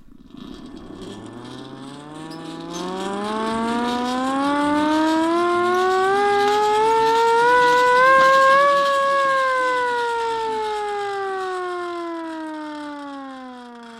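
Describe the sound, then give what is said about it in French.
A small hand-cranked siren winds up from a low growl to a loud, steady wail, then slowly sinks back down in pitch, heard alone with no voices. “C'est une, une poupée non, c'est une sirène à manivelle, je, vous fais écouter.”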